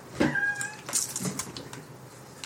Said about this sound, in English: I don't mean to be so rotten, but she'll just stand underneath me and meow.